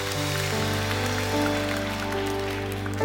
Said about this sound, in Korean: 일하신 하나님 실수가 없이 하나님께 영광의 박수를 드리겠습니다.